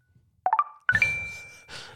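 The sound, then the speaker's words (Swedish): A phone app's notification chime plays twice: a quick run of three bright rising electronic notes, then a second rising burst with a lingering ring and a softer swell at the end. “Det är att det låter så här i många mobiler då.”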